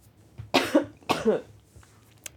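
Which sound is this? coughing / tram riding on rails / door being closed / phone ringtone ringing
coughing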